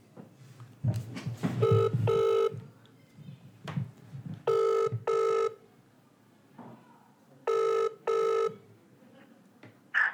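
phone call ringing tone

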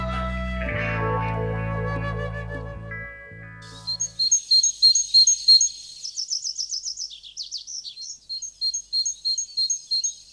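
great tit singing

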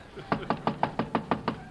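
knock on a door

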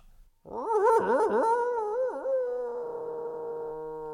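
dog whining and howling

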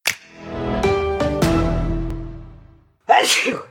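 sneeze

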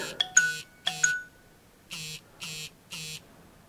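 mobile phone notification tone

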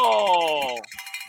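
hand bell ringing

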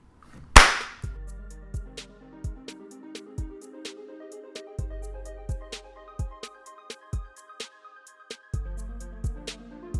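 hand clap

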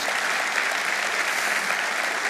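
audience applauding

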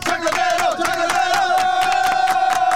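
audience applause and cheering

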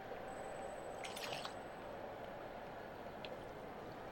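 drinking water

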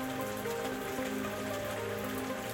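rain falling

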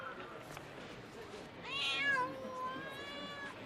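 cat meowing

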